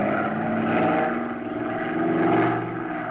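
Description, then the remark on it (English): A steady, loud drone of a propeller airplane engine in flight, continuous, with a low throbbing hum and slight swells in volume, no voices. “Can you get about 10 or 15 miles ahead of her and find a place to sit this plane down?”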